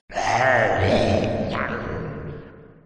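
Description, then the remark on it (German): A human voice imitates a satisfied grunt: one long, low, contented groan that starts strong, then slowly trails off over a few seconds, clear with a slight echo. “Ein zufriedenes Grunzen.”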